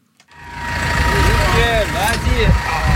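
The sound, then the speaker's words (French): A tractor engine rumbles steadily, a continuous low throb that starts after a brief silence, with indistinct voices talking in the background, at a tractor driving-skill contest in Romont, Switzerland, where participants stand grouped around the tractor on a paved area. “Elle a fait le pied sur une place goudronnée, les participants au concours sont groupés autour d'un tracteur.”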